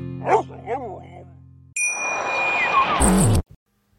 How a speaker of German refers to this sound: Im Hintergrund, man wird es eh nicht hören, aber es läutet gerade das Münster. Es ist 18 Uhr quasi,